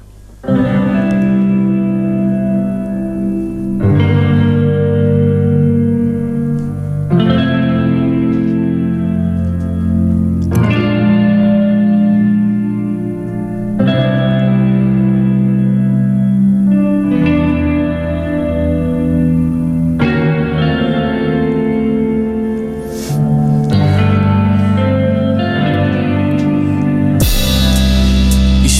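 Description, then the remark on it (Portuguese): A previously unreleased song plays as an exclusive on Rádio Latina, steadily and loudly, with effect-laden, reverberant chords changing every few seconds in a repeating pattern. No singing is evident, and there is a brief dip before it ends abruptly. “no showcase na Rádio Latina é o convidado de hoje com mais um tema inédito em exclusivo aqui na sua rádio.”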